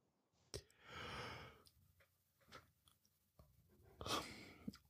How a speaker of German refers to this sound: Hast du jetzt etwa gegähnt?